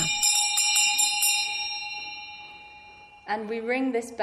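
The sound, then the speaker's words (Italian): A bell rings out with a few quick, bright strikes, its clear metallic tone lingering and slowly fading before a person begins speaking. “Questa è la campana.”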